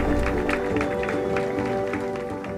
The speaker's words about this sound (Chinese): 结果当推开门时，群众涌现，大家响亮的掌声为这一切的空洞有了最好的答案。